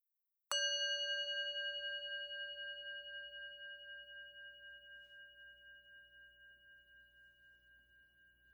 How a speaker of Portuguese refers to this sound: Agora, ao toque do sino, vamos começar.